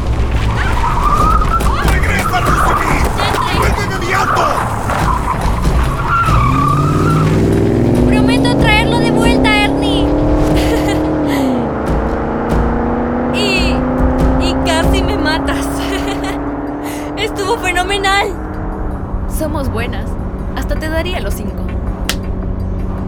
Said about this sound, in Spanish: Salta por la ventana. ¿Qué? ¿Saltar a un auto en movimiento? Salta ya.